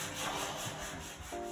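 A steady, coarse grinding and rasping as a deer antler from a traditional Chinese medicine shop is ground down, the outer and inner parts ground away to leave only the middle piece; continuous and fairly loud, with a brief tonal hum near the end and no talking.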